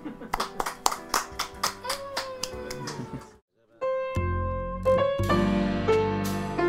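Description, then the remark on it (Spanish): About a dozen sharp hand claps land in a steady, even rhythm over a few seconds, then stop. After a brief pause, a sustained voice or tonal sound follows. “Así que dediquémosle un aplauso al novio de la abuela Yeta.”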